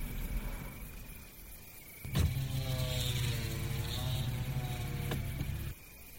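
A car's low engine rumble hums steadily as it drives along a road around 3 a.m., joined midway by a steady electric whirring that starts and stops with soft clicks, like a motor running for a few seconds. No one speaks.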